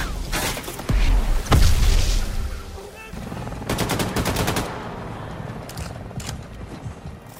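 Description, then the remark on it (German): Chaotic battle gunfire from the Allied landing in Normandy in the video game Call of Duty: World War II: heavy booms and single shots early on, then a loud burst of rapid automatic fire, continuing under a dense, rumbling din of combat. “So klingt es, wenn die Alliierten in Call of Duty World War II in der Normandie landen.”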